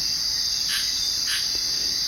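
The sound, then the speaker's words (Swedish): Rainforest ambience dominated by a steady, high-pitched insect drone, with two brief louder chirping swells rising over it. No voices are heard. “Det jag hör här är ju ljudet av eh, regnskog.”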